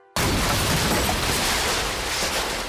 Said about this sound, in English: With the near deafening explosion of the shed